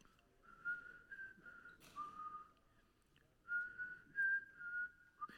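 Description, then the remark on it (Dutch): Someone whistles a simple melody in two phrases separated by a short pause, the notes sliding and stepping between pitches. The whistling is soft, with no talking. “Ik weet niet wat voor liedje die floot trouwens, maar hij begon wel te fluiten.”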